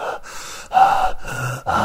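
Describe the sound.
A voice imitates an actor's heavy panting: four loud, breathy gasps in quick succession, each a rough burst of air separated by brief pauses, with no other sounds.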